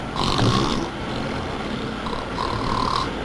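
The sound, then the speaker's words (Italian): A fart by the character Calboni on a train in the Italian film Fantozzi: two long, raspy low blasts, the first louder and the second drawn out, over a steady rumbling background with no talking. “andiamo all'ingegner mm, Calboni di Fantozzi che si propone con la sua ventilazio putrens sul treno.”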